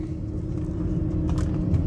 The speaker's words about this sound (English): and this is one of my favorite roads to fucking drive, dude. It's like the Audubon in North Carolina. No, I mean, really, it's got the most perfect curves of any of the streets that I drive.